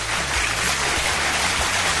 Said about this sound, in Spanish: Un aplauso para este.